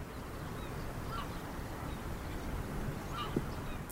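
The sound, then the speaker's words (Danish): A few scattered gull cries ring out over a former fishing harbour on the Limfjord, over a steady rush of wind and water, each call short and fairly faint, with no voices present. “Det eneste, der minder bare en lille smule om det fiskerliv, der var engang. Det er mågeskrigende.”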